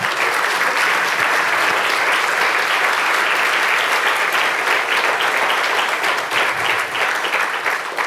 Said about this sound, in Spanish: ¿Cuántos dicen amén? ¿Cuántos dicen amén? Dele fuerte ese aplauso al Señor.